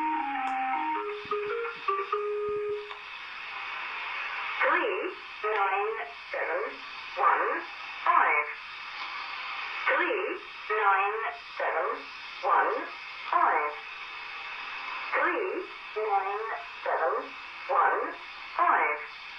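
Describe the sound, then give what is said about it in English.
A shortwave number station broadcast from an English air base in Cyprus: a flat, synthesized voice reads a steady string of evenly spaced syllables in English through hiss and static, preceded by a brief tonal signal. “So you can really hear the synthesized speech uh, with the English language.”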